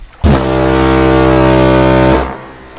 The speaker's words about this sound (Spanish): el piloto irredento que debió confundir los farallones con los muelles porque en aquel instante reventó el bramido descomunal de la sirena una vez. Y él quedó ensopado por el aguacero de vapor que le cayó encima. Otra vez.